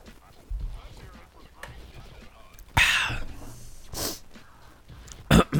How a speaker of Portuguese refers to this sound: Deixa eu tomar, só dar um golinho aqui, peraí. Tomando um suquinho aqui.